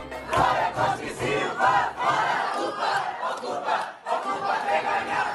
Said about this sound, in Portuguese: O ruído da cidade foi abafado pelas vozes do protesto.